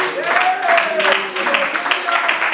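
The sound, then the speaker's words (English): An audience at the Abundant Life Center of Lathrop claps their hands in worship of the Lord, a dense, continuous patter of overlapping claps, with voices calling out and a sustained vocal tone rising over the crowd. “If you believe that, why don't you clap your hands and worship the Lord?”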